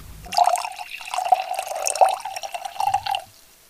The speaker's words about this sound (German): Und ähm, ja, deswegen habe ich uns eine schöne Flasche kalterer See mitgebracht. Darf ich die einschenken? Unbedingt.